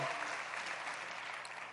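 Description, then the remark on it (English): An audience at St. Matthew's claps their hands together for the Lord in steady, dense applause, many hands blending into a continuous bright patter that holds at an even level throughout. “Get a hand, get a Lord a hand clap.”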